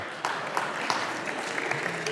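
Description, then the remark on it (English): An audience claps steadily, a dense patter of many hands forming a sustained wash of applause at moderate loudness, with a few sharper individual claps standing out. “No, no, I don't, I don't need an applause.”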